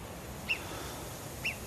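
Two short, sharp, high-pitched alarm whistles from a marmot on the Prapic plateau, about 86 metres away beside bushes near snow, warning other marmots, about a second apart, standing out moderately above a steady low background hiss, with no talking.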